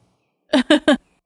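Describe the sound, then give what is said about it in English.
Three quick sneezes in a row, fairly loud, each a short sharp burst with a brief gap between them, over an otherwise quiet background. “bless you. Excuse me. Thanks. Gesundheit.”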